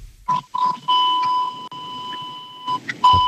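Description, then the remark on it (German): Loud electronic beeping on a phone line, a steady high tone that sounds in several bursts, cutting out briefly between them, with faint line noise underneath. “Das ist leider sehr laut, das Piepen.”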